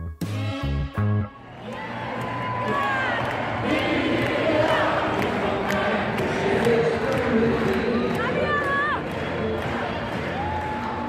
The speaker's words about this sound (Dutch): Maar dat is dus echt een voetbalstadion, maar dan met voetballende vrouwen.